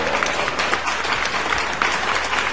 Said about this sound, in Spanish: aplausos para este gran joven